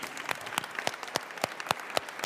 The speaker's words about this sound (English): Yeah, I- I, just wanted to, to second the applause to Dr. Marble and his, his service and his practice.